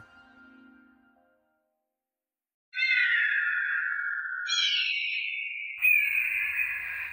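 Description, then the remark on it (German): Screeching of flying pterosaurs as reconstructed by paleontologists: after a faint low rumble and a short silence, three loud, shrill, drawn-out cries follow one another without pause, each stepping to a different pitch. “So jedenfalls stellen sich Paläontologen die Geräusche von Flugsauriern vor.”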